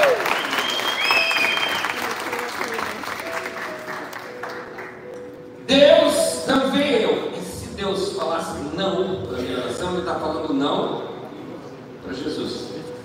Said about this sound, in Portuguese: Tá, vamos um aplauso